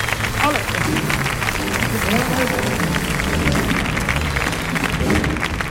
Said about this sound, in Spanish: Fuerte el aplauso para don Andrés Guardado.